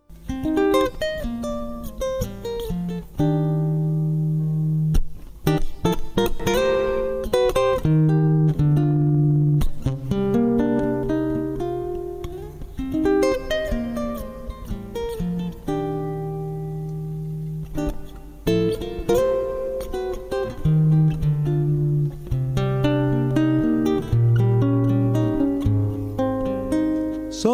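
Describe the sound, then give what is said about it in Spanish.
A folk song sung by its composer: a single voice singing long, held melodic lines over steady plucked string accompaniment, evenly loud throughout. “Primero, lo vamos a escuchar justamente en la voz de su autor.”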